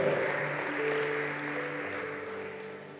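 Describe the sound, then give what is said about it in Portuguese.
An audience applauds God (the Almighty) at a preacher's call during a sermon, in a steady, dense wash of clapping that lasts the whole moment, with sustained musical tones humming underneath and no voices. “Se você está entendendo, diga glória a Deus Deus e aplauda ao Todo-Poderoso em nome de Jesus.”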